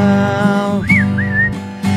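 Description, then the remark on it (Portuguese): A person whistles a short birdlike phrase imitating a sabiá thrush, two rising-and-falling high notes that swoop and trill, heard over a steady droning musical background. “Ah, É o sabiá”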